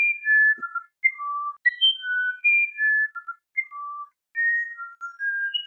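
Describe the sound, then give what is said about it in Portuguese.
A small, dark green, almost black uirapuru bird of the Amazon sings a clear, flute-like song of pure whistled notes, each pitch held briefly then stepping up or down in a melodic, unhurried phrase, heard alone. “Segundo, não é nem lenda, segundo as coisas constantes que se narram a respeito, ele tem um tipo de canto de talorda sedutor, e quando ele para para cantar, as aves em torno vêm para ouvi-lo.”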